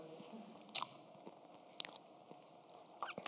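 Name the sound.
biting and chewing food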